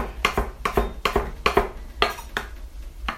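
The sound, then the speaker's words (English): A knife rapidly chops two big handfuls of fresh herbs on a cutting board, sharp taps in a quick, slightly uneven rhythm, about a dozen strikes with no talking. “So I'm chopping and chopping.”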